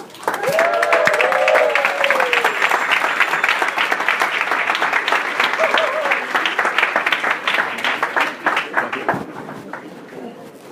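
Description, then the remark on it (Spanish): Sustained audience applause welcoming a speaker, a dense steady clatter of many hands clapping for about ten seconds before thinning out at the end, with a few brief cheering voices near the start. “Así que demos un, un fuerte aplauso”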